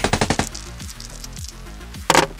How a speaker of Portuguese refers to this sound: Com isso, você vê quando aqueles três soldados, eles em conjunto, levantam suas armas e sem pestanejar, nem mesmo por estarem dentro do laboratório, começam a efetuar disparos.